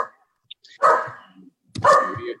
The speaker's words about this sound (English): Well, some dog is barking at somebody's house, right?